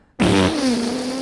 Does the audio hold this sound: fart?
yes